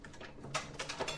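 Rhythmic mechanical clacking of an old printing press, a few sharp metallic knocks in quick succession over a low background hum, fairly quiet and with no voices.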